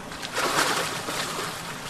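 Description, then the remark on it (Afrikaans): Water sloshes and splashes softly as an otter slips out of the reeds into a river, swelling briefly then settling into a steady watery wash, with no voices. “Olga Lekle nog vir oulaas mooi skoon voordat sy uit die riete en in die rivier inglip”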